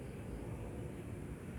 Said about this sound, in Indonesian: dan jika kalian mendengar suara motor lewat seperti ini suara jangkrik suara hembusan angin malam suara mobil lewat.